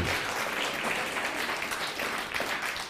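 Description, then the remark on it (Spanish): Steady, dense applause from an audience, many hands clapping together in a continuous crisp wash of sound that holds at an even, fairly loud level throughout. “Un fuerte aplauso a todos ellos.”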